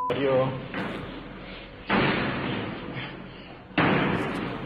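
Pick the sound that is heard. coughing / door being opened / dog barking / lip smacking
door being opened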